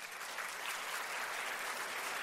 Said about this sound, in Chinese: 他告诉我，这些人都不用工作的，因为他们都是全职做爱多美的人，给他们一个掌声好不好？